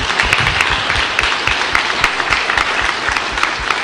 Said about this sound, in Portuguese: Salva de palmas.